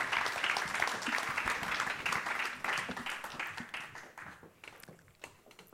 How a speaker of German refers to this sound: Lasst uns dem mal einen richtig fetten Applaus geben.